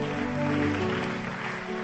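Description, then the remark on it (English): A church audience claps steadily in worship, a dense wash of many hands blending into a continuous patter, with sustained musical tones from the music team underneath and no clear talking. “Come on, keep clapping. Keep clapping.”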